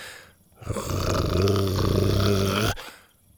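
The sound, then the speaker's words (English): A dog named Buck gives a low, sustained growl that rumbles steadily for about two seconds, deep and fairly loud, with a gritty, buzzing texture before cutting off abruptly. “He stepped closer to the pile of masks despite Buck's persistent growling.”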